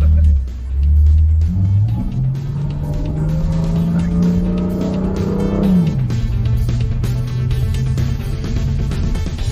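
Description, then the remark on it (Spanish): A BMW M3 sports car engine accelerates hard as the car is driven in manual mode, shifting its dual-clutch gearbox with steering-wheel paddles; its loud drone climbs steadily in pitch, then drops sharply at a gear change before pulling upward again. “Estamos ahora manejando el auto en modo mecánico.”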